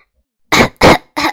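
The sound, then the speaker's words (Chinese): Three harsh, loud coughs from someone with a cold and an itchy throat, in quick succession, each a short rasping burst with a brief gap before the last one, and no talking around them. “因为我嗓子痒，总想咳嗽。”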